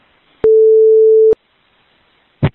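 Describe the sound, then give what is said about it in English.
A loud, steady electronic redaction beep over a 911 emergency call recording holds for nearly a second as a single flat tone, cutting in and out abruptly, followed by a short muffled thump after a pause. “Um, Why is that um, redacted?”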